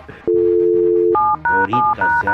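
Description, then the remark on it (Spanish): A steady, low dial tone hums for about a second, then gives way to a quick run of five loud touch-tone beeps as a phone number is punched in, with no voices. “Vamos a marcarle otra vez, vamos a marcarle otra, vez.”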